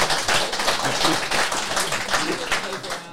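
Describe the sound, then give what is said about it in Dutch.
A burst of steady applause, many hands clapping in a dense, crackling wash that holds at an even loudness for about three seconds, with faint voices mixed in. “Applaus, applaus voor... applaus.”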